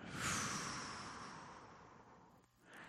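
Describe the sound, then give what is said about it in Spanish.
A long, breathy exhale after a held final breath swells quickly and then tapers off gradually over a couple of seconds, soft, followed by a faint new intake of breath at the end. “Sostén y exhala.”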